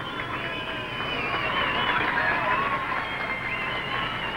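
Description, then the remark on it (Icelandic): A large crowd of supporters cheers in a ballroom as Kennedy finally makes his way in: a dense, steady roar of many voices shouting together, loud throughout, with a few higher shouts rising above the din. “Þegar Kennedy komst loks leiðarsinnar í gegnum búrið og inn í dansalinn brutust út mikil fagnæðalæti.”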